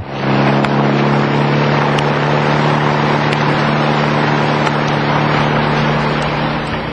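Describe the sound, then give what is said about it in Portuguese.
A car engine rumbles steadily for several seconds, a low droning hum with faint clicks, as the vehicle pulls up and stops in front of a modest pharmacy. No one speaks. “Antenor encostou o carro em frente a uma modesta farmácia.”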